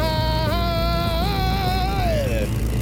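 A motorcycle engine revs as the rider twists the throttle grip, a loud steady roar whose whining pitch wavers, rises and falls over a few seconds before dipping at the end.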